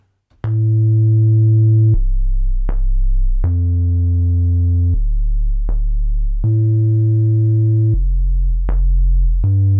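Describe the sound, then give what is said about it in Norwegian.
A loud, sustained synth bass line plays alone, shifting between several very deep held notes with sharp attacks, the low tones rumbling beneath brighter harmonic overtones. “Det du likte kanskje best, er jo syntbassen, som jeg er ganske fornøyd med lyden der.”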